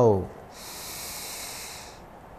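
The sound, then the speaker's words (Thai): A brief voiced sound at the start gives way to a long, steady, airy deep inhalation through the nose lasting over a second, soft, then quiet; a deep breath taken during a guided breathing meditation, before the breath is held. “เริ่มต้นเราจะเริ่มฝึกในการกักลมหยาบเพื่อให้เข้าถึงลมละเอียด หายใจเข้าลึกๆ หายใจเข้า”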